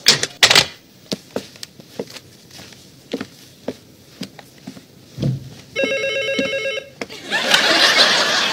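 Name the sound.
telephone ringing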